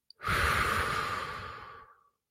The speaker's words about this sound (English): Actually, take three deep breaths. If you're listening or you're watching, I want you to take one with me now. Ready? Inhale. Exhale.